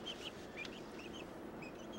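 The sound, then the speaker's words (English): A small bait chicken in a bal-chatri trap cage set for a hawk makes a string of short, high chirping clucks in quick succession, fairly quiet against a steady outdoor background hiss, with no one talking. “We got us a little chicken here for bait, but don't worry, we're not gonna kill the chicken.”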